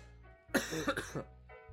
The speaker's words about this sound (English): there you go. There's my first cough.